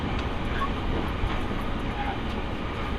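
A steady, loud rumble of the limited express Sonic No. 6 running on the Nippō Main Line from Yanagigaura to Kokura, Japan, heard from inside with continuous low-frequency roar and faint clatter, no clear speech.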